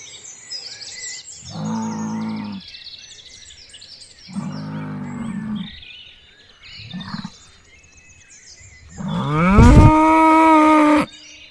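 A bull moos four times, three short low calls followed by a louder, drawn-out bellow that rises in pitch, with birds chirping steadily in the background.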